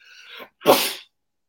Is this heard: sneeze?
yes